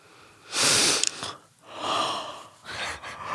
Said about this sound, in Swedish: Gäspar.